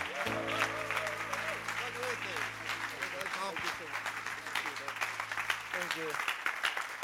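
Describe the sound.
Steady, loud applause from a large audience at ICF Bern as a speaker is welcomed on stage and people are asked to stand, dense clapping that holds for several seconds, with voices and a sustained musical tone running underneath.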